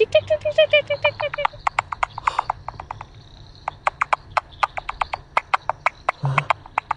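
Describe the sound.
A voice imitates microbat calls as heard on a bat detector, at night in the City of Sydney, a fast, uneven run of sharp clicks and brief chirps, fairly loud, with no other talking.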